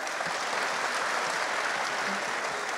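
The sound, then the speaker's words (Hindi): Sustained applause from a large crowd fills an indoor hall, a dense, steady wash of clapping at even loudness with no voices standing out, as the audience applauds an athlete who won two golds and three silvers for India at the 2019 World Police Games. “अभी कैसा अच्छा लग रहा है कि जब ये बता रही हैं और हॉल जो है वो तालियों से गूंज रहा है एक बार फिर से तालियां जरा”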